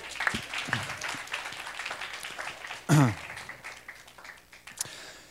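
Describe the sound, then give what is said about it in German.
A crowd applauds steadily throughout, a dense wash of many hands clapping at once, with a brief louder vocal cheer or shout rising out of it partway through. “Okay, großartigen Applaus für euch.”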